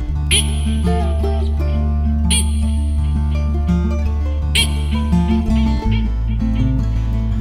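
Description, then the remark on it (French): A voice imitates a frog's call, three bright, bleating croaks spaced evenly over a steady, droning backdrop, loud throughout. “Et parfois, il y, a des grenouilles qui font même.”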